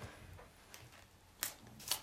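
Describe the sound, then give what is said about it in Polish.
Stiff new playing cards being shuffled: two crisp, sharp snapping bursts about half a second apart, with faint softer rustling around them. “Kurde, są takie, no, średnie, tylko początek mi się potasował.”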